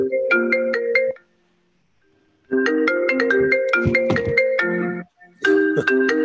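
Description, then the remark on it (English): An incoming call ringtone on a computer plays in three repeating bursts of bright, stacked melodic electronic tones, with a short silence between the first and second bursts; loud and with no talking. “so, one of the joys of turning off your phone is it stops the call. The sad thing is, your computer He's still can to the call instead.”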